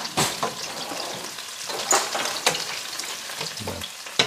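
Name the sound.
meat frying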